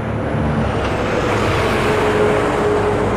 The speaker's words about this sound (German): Und wie es so ist, wenn, wenn man über Themen spricht, dann fahren auch Autos durch.